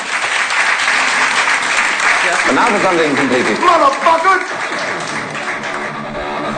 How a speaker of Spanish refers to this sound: Así que bueno, un gran aplauso para ellos